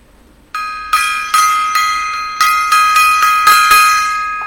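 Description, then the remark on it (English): A mini gong is struck repeatedly in quick, slightly uneven succession, each bright metallic hit ringing on and overlapping the next. Fairly loud, with no talking. “Lots of gongs tonight. Uh, mini gong over there.”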